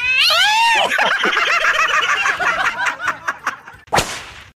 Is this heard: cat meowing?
yes